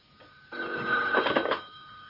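A telephone rings in one continuous burst lasting about a second, its bright, rattling bell tone swelling slightly before cutting off. No one speaks.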